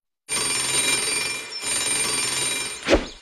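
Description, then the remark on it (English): A bell rings in two long, continuous bursts separated by a brief pause, a loud, rattling metallic trill with a sharp knock near the end of the second burst. “Bell.”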